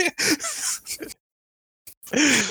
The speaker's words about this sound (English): Gasp! I, I, actually forgot how to gasp. Breathe really quickly. Yeah.